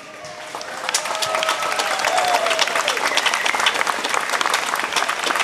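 A crowd applauds steadily, a dense wash of clapping that swells in the first second and holds loud and even throughout, with a few whistles or shouts cutting through above it.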